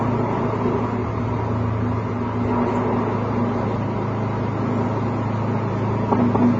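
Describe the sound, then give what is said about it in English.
Steady, continuous low rumble of a car in motion, road and engine noise heard from inside, as it heads from the first checkpoint at the Automotive Hall of Fame Museum to the next one, constant and even throughout with no voices. “So we're well out of the first checkpoint now, uh, headed to the next one.”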